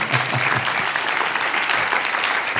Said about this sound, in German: Geben wir Gott Applaus für das.